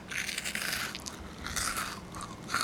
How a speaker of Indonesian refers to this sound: Ini … lagi makan, jadi kalau mau dengerin dia lagi ngonyah snack nih.